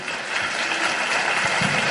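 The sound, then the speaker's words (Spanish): Sustained audience applause bidding farewell to a guest, a dense, steady wash of many hands clapping at an even loudness for the full two seconds, with no voices standing out. “Con un fuerte aplauso nos despedimos de él.”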